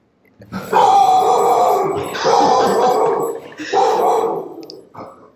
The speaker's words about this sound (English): Apologies for the dog. He has had a lot to say today